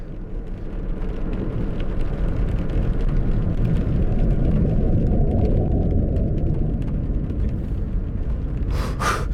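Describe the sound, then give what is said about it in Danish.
A car engine roars loudly and continuously as the vehicle speeds up and drives away as fast as it can, a heavy rumbling drone with road noise, and a brief sharp whoosh near the end. “speeder op og kører derfra alt, hvad jeg kan.”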